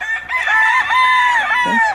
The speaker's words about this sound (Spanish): Pero, este coral de cuatro gallos va a tener la misma marca todas? Sí, todos tienen la misma marca.